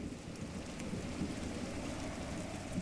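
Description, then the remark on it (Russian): Low, distant thunder rumbles steadily beneath a constant hiss of heavy rain, the deep roll swelling slightly but never cracking sharply, with no voices present. “Фиолетовая густая тьма зарокотала вдали глухим громом – полным еще сдерживаемой, но готовой разразиться неистово ярости.”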